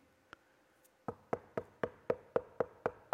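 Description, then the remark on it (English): Knocking on wood: one lone knock, a short pause, then a quick, steady run of about ten firm raps. Loud, with no voices. “He said, I'm standing at the door and I'm knocking.”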